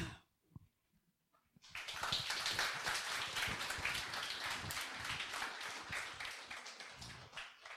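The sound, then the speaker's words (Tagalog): A church audience bursts into loud, sustained applause for the Lord after a brief quiet moment, a dense crackle of many hands clapping together that holds steady for several seconds. “Bigyan naman natin ulit ng palakpak ang Panginoon”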